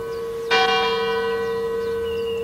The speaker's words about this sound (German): Einen Faulpelz, dem jedes noch so kurze Läuten der Kirchenglocke eine Aufforderung ist, eine Pause einzulegen.